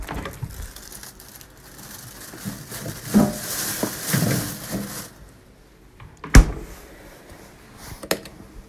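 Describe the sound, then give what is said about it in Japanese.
Rustling and handling noise, then a refrigerator door thuds shut with a sharp knock, followed a couple of seconds later by a lighter click. “これは冷蔵庫”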